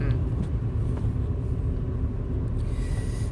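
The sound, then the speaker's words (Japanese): A steady, low car engine rumble from a car being driven fills the whole stretch, constant and fairly loud, with faint road noise on top and no distinct events standing out. “あの運転しつつ話しているのであの車止めてからっていうかあの家着いてからモフモフ探そうと思います”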